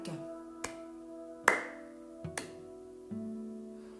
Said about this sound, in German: Er hat dreimal in die Hände geklatscht, das mal alleine.